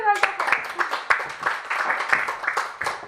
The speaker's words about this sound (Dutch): Dus een applaus voor Lieve.